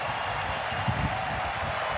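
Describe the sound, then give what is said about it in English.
A large tennis crowd applauds a winning shot by Carlos Alcaraz against Djokovic, who also applauds, a dense, steady wash of clapping that stays loud and even from start to finish, with no voices standing out. “There was applause from Djokovic. The crowd were on their feet.”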